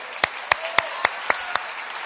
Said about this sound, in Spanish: Este, la verdad, se volaron la barra de estos chavos, ¿sí o no? Un aplauso grande, ¿verdad? A todos.